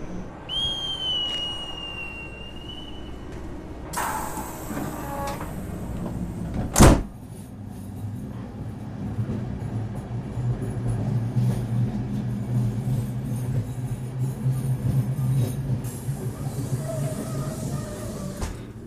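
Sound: train doors closing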